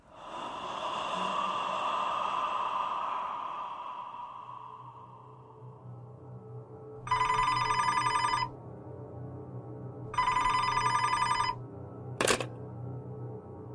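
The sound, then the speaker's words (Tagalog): A hotel telephone rings at 3 a.m., twice in bursts of about a second and a half each, with a gap between, followed by a short click, after a stretch of heavy breathing-like noise with no talk. “Napansin ko po na palaging may tumatawag tuwing 3 a.m.”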